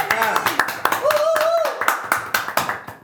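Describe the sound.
Applause breaks out for a guest: a few pairs of hands clap in a loose, uneven rhythm of sharp, bright claps, with voices calling out over them.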